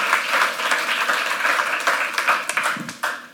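A church audience applauds its first generation for their skit, a dense, steady wash of many hands clapping, with a few sharper individual claps standing out toward the end and faint voices mixed underneath.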